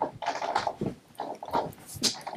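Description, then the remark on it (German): A dog chews noisily, a run of wet, crunchy bites and smacks repeating irregularly over a couple of seconds with no talking. “Das ist unser Hund.”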